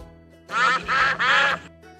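Ducks quacking: three loud, raspy quacks in quick succession, each about a third of a second long, with no voices over them.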